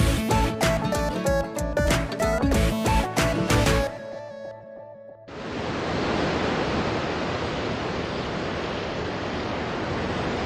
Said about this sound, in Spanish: Imagina que estás en la playa observando el movimiento del mar. Siente cómo el agua baña tus pies descalzos.